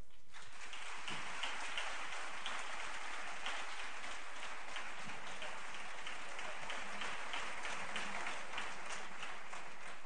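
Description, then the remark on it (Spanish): An audience in a large theatre applauds on Easter Tuesday to welcome a speaker at a tribute event, dense, steady clapping that holds at an even level for about ten seconds, a continuous bright crackle of many hands with no voices over it. “Por favor, un fuerte aplauso para él.”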